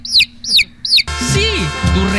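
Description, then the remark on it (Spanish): A chick clucks and peeps three times in quick, evenly spaced high-pitched bursts, clear, in a commercial for an income tax service, before a busy blend of music and voices takes over. “Para eso está el pollito Income Tax.”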